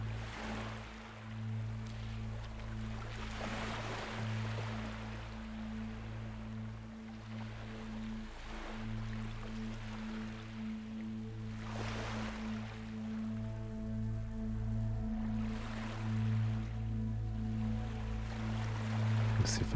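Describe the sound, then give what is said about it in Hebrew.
Steady sounds of clean, clear sea water and waves wash continuously beneath a low, sustained hum of soft, enveloping drone tones, with gentle swells in the rushing texture and no voices. “צלילים של מים, מים נקיים, מים צלולים.”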